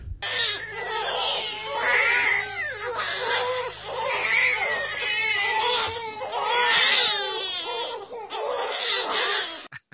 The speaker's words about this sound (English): Yeah, well, I mean, just put a bunch of explosions in, I guess, glass breaking, you know, children crying. Okay, explosions. glass breaking. Children crying.